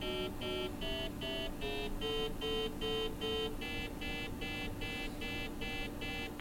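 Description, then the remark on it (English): A biofeedback tone beeps in a steady rapid pulse, about three beeps per second, its pitch stepping gradually lower to the bottom of the scale as a person transitions into relaxation, with a faint hiss underneath and no voices. “Good, although you'll still hear some variation in the tone.”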